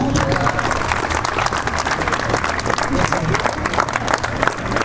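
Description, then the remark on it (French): Sustained audience applause for a sports team's players at a reception organized by their sponsors, a dense steady patter of many hands clapping at an even loudness throughout, with a faint murmur of crowd voices underneath. “Eh bien, très bonne soirée à tous et vous encore les applaudir.”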